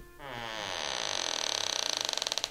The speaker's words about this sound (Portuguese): De repente, a porta se abriu.